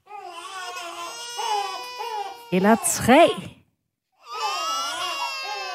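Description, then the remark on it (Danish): Babies cry loudly, their overlapping wails rising and falling for several seconds before a short pause, after which someone speaks briefly. “men hvad nu, hvis der er to babyer på én gang?”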